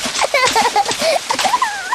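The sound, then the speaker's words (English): Lively splashing of bathwater in quick bursts as Peppa and George splash in their bath before bedtime, mixed with high, playful squeals and giggly children's voices throughout. “Peppa likes splashing. George likes splashing.”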